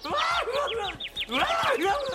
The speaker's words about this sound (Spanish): ¡Un pajarito!